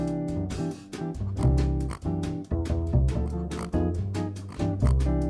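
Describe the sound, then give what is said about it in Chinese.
A pig oinking sound effect: a loud, steady run of nasal grunting oinks repeating in a quick, regular rhythm for several seconds, with no talking. “不知道大家有没有听过猪叫？哎，不是这种刚刚这种音效，是那种很凄厉啊的惨叫。”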